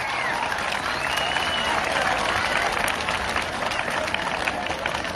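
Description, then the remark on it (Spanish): A crowd applauds steadily for the students of a secondary school, Secundaria General número 2, a dense wash of many hands clapping at even loudness throughout, with faint cheering voices mixed in. “Pero el aplauso más importante siempre, siempre va a ser para todos los jóvenes estudiantes de esta secundaria general número dos, Fuerte el aplauso para ustedes, jóvenes.”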